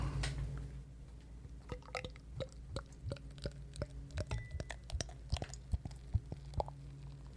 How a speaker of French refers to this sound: Ah, elle chante différemment euh, de la première. Oh, la mousse Ça pétille ça, ça dit La tondeuse aussi. Mm. Oh, ça pétille. Magnifique.